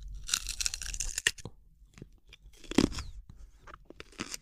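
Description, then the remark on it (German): Crisp, crunchy bites of something like a raw carrot, close and fairly loud, with a dense burst of crunching followed by sharp snaps and quieter chewing. “Das ist wie eine Karotte so ein bisschen, aber.”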